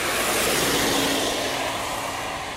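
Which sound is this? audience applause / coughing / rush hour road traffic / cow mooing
rush hour road traffic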